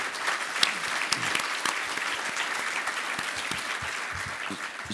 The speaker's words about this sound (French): Je crois qu'on peut t'applaudir.